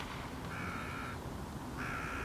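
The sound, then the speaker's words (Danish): A swan screams twice while a mink attacks it, clinging under its wing; each cry a harsh, raspy, nasal call lasting under a second, separated by a short pause, over a steady background hiss with no talking. “Nå, svanen skriger.”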